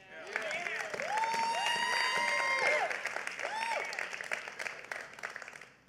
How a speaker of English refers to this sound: All the father, raise your hand. Happy Father's Day. Give yourself a, a, a hand clap. Now give yourself a hand clap for being in church.